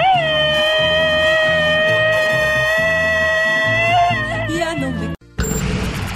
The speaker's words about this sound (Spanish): Este es un grito ametralladora porque estamos de fiesta, señoras y señores.